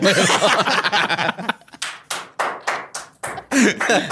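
Someone claps their hands in a quick, uneven series of sharp slaps, following a burst of laughter at the start, with a short giggle near the end.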